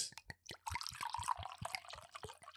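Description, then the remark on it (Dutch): A drink pours into a glass, a gurgling, splashing stream with bright fizzy crackle and a rising ring as the glass fills, preceded by a few short clinks and drips. “Oh, kom op, dat is toch het mooiste geluid. Vooral dat onderaardse in dat glas.”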